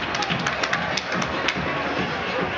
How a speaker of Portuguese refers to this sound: A galera aplaude aqui, os torcedores aplaudem.